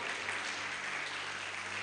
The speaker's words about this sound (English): I thought you'd be clapping here. I thought you'd be clapping. I thought you'd be clapping.